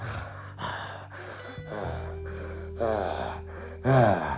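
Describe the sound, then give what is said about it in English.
A voice imitates heavy, wheezy asthmatic breathing: a run of labored, rasping gasps and snorts in an uneven rhythm, growing louder toward the end, with no words spoken. “You know, you can walk up 24 staircases without having a fucking asthma attack. It's beautiful now. Didn't you, didn't you guys know that? Heavy breathing, you know?”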